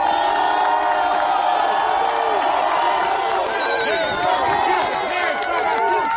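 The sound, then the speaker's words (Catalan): A dense protest crowd in the streets of Belgium, demonstrating against King Leopold II and the country's colonial past, roars continuously, many voices shouting and calling out at once, with some whoops and cheers rising above the steady, loud din. “Pintura vermella, crits d'assassí i demandes de reparació. Bèlgica ha sortit al carrer per rebel·lar-se contra l'Eupol II, el rei a qui es fa responsable de 10 milions de morts al Congo colonial.”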